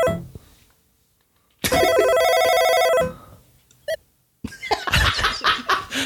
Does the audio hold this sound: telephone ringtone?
yes